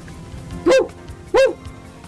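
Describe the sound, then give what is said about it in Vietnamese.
Two short, sharp dog barks, evenly spaced about half a second apart, loud against a quiet background. “Chẳng hạn như chó thì kêu”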